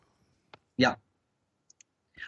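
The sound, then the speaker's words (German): A few sparse, irregular taps on a keyboard amid quiet, broken by one short, louder burst of sound partway through. “Hör auf zu tippen.”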